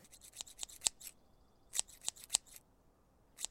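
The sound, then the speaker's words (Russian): A person vocally imitates a scraping sound: quick, dry, snipping scrapes in irregular bursts, a brief pause, then another cluster and a final scrape, fairly quiet, with no talking. “и тут такой, блин, я не, восп- не воспроизведу тот звук, нет, так, скребечащий такой звук, так...”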